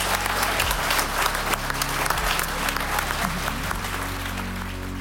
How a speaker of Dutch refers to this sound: Alle politici, ik wil graag een eh, warm applaus...